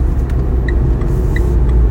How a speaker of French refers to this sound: Là, je suis dans la voiture.